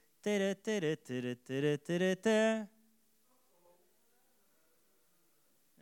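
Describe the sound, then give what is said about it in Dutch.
A voice sings a short, bouncy jingle imitating the Loekie de Leeuw tune heard at the end of Dutch TV commercial blocks: six clear, evenly spaced sung notes, fairly loud, then a few seconds of near silence. “En dan hoorde je aan het eind altijd dat liedje.”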